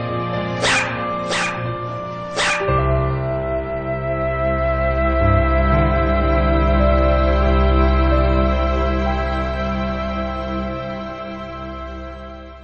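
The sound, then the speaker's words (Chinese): A small dog named Sonya gives three quick, sharp yaps in the first few seconds, then a long, drawn-out whimpering stretch follows over a steady, humming tonal background. “索尼娅经常想事儿，这样一来呀，索尼娅就成了一只非常非常聪明的小狗了。”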